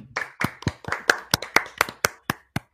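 Hand clapping, about a dozen sharp claps in a slightly uneven rhythm, steady and fairly loud, with no voices over them.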